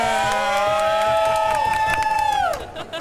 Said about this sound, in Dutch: Als jullie allemaal nog even één keer willen juichen voor jezelf. Yeah.